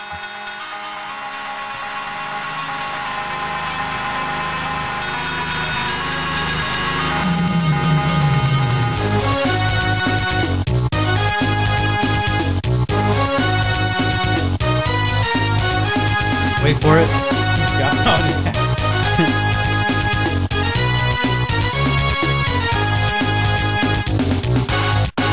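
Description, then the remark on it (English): Loud, driving football video game title music with a punchy rhythmic beat and bright synth layers that kicks in after a rising swoop; a brief remark and laughter come near the start. “That's the best football intro of all time.”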